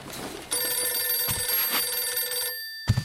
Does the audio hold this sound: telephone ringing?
yes